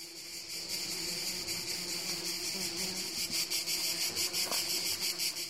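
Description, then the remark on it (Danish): A dense chorus of cicadas drones loudly and continuously far out in the countryside up in the mountains, a shrill high-pitched buzz that swells into rhythmic pulsing toward the end, with no voices present. “Vi er langt ude på landet, oppe i bjergene, hvor cikadernes lydtæppe overdøver alt.”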